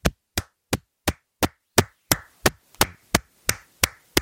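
A steady series of about thirteen sharp hand claps into a microphone, evenly spaced around three per second, each loud and crisp with a short ringing tail. No one speaks.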